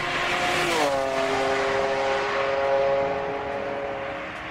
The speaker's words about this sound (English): When I pulled the handle on my car door, I noticed a car running down the street without lights on. When I turned to face the car, the lights came on bright and it sped past me at lightning speed, like it was warning me to mind my own business.